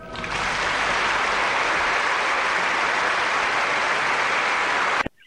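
A burst of enthusiastic applause from a crowd, dense and steady clapping for about five seconds before stopping abruptly, with no one talking over it.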